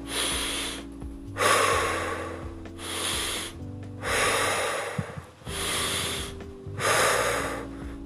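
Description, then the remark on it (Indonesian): Slow, deep breaths in a breathing exercise: long airy inhales through the nose alternating with exhales through the mouth, six broad breath sounds in a steady rhythm with short pauses between, no speech. “kita menarik nafas panjang lewat hidung hingga penuh, kemudian kita membuangnya lewat mulut.”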